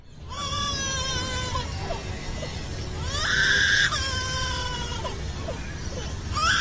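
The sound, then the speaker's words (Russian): A bird at an Australian zoo mimics a crying baby with drawn-out, wavering wails, several sobbing cries in a row, loud, rising to a harsher shriek midway, with no talking. “В австралийском зоопарке показали птицу, которая разговаривает плачем ребенка”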